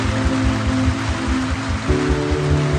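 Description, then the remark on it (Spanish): Steady rain hisses evenly throughout, fairly loud, layered over a low pulsing musical drone that shifts pitch near the end. No voices. “esta lluvia es como un llanto que se va perpetuando en los caminos, embarrando cada paso y los sentidos.”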